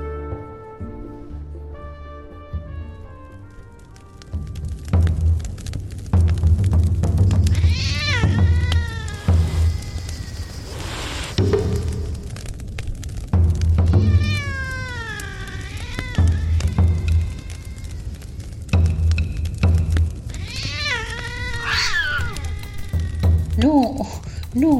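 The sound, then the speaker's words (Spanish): A cat meows in drawn-out, wavering cries, returning in three or four bursts spaced several seconds apart, loud, over a steady thumping low beat of music, opening the audio story La Gata Negra, from Buenos Aires, Argentina. “Acá va La Gata Negra, escrito y producido por Mauricio Vallese.”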